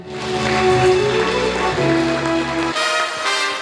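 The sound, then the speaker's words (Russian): Steady, dense applause from an audience, loud and continuous for a few seconds, with sustained musical tones playing underneath for most of it before the clapping carries on alone. “Наши аплодисменты, друзья!”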